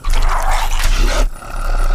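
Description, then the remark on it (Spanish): A loud, rough wolf-like growl of a werewolf transforming rumbles for about a second, then breaks off briefly before a lower, raspier snarl continues. No one speaks. “Ahora soy inmortal y cada que hay luna llena, me transformo en un monstruo furioso. En un lobo violento, iracundo y feroz que destruye todo a su paso.”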